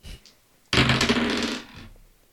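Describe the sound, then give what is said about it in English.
A handful of story dice tumble and clatter across a hard tabletop, a bright rattling burst that quickly settles into stillness, with no voices. “And yeah, I'm handing over to you the dice.”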